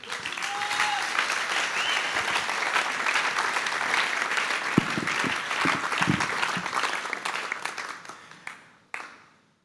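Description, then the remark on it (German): An audience breaks into sustained applause, a dense wash of many hands clapping at steady volume, with a few whoops mixed in, before the clapping tapers off and stops with a final scattered clap. “Ein Applaus.”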